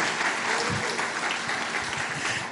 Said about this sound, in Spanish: Ahora sí, diga amén y aplauda si quiere.